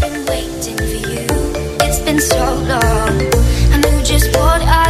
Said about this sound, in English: I think I've heard somebody with this ringtone.